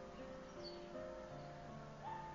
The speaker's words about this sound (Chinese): 你能听到外面走过的路人，也可以听到几个胆子比较大的麻雀叽叽喳喳的，就在我们家窗子底下探着脑袋在聊天一样。